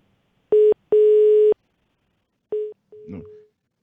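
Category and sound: signal or alarm, telephone busy tone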